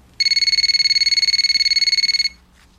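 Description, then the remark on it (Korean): A phone rings with an incoming call from a friend, a rapid, evenly pulsing electronic trill, high-pitched and steady for about two seconds, then stops abruptly. No one speaks. “그때 그 친구로부터 전화가 왔습니다.”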